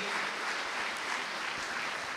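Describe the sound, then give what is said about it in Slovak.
A live crowd applauds steadily in tribute to a woman being congratulated, a dense wash of many hands clapping at once, sustained and fairly loud throughout with no voices standing out. “Nie, každopádne, tento jeden veľký potlesk patrí”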